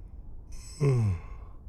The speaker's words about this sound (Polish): Ziewnąłem